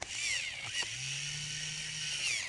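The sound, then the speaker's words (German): An electric pencil sharpener whirs steadily while sharpening a pencil, a high buzzing grind with a low motor hum underneath, lasting the whole moment without pause. No one speaks. “Ich mache einfach mal nur das Geräusch, was es halt nicht spitzt. Jetzt spitzt es.”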